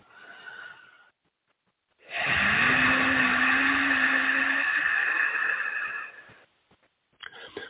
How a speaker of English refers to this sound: So it's a neutral hum or tone that moves through the larynx, the pharynx, around the trachea and esophagus. And it activates and strengthens the vagal nerve, or when you activate it, you're raising vagal tone.